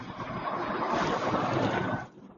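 Steady road and engine rumble from inside a moving car, a continuous broad hiss and drone at moderate level that cuts off abruptly just before the end; no one speaks.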